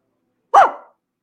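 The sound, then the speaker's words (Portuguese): A man's voice lets out a single loud bark in imitation of a dog, to see if a little dog wakes up, sharp at the onset and trailing off quickly into silence. “Eu vou dar um latido aqui para ver se ele.”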